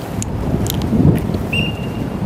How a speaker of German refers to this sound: Und der Wind, der ist immer noch da.